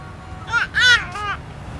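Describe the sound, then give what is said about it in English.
A healthy infant babbles in three short bursts of high, wavering coos while being hugged by his mother, with brief pauses between them over a faint low background hum. “How about we use the sound of a healthy infant baby being hugged by his beautiful mother?”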